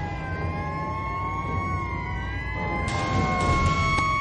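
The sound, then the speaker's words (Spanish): Several police patrol car sirens wail together in overlapping, gliding tones over a low traffic rumble, holding steady and growing slightly louder toward the end as the patrol cars approach. No one speaks. “Ambos han visto el resplandor de los coches patrulla que se acercan.”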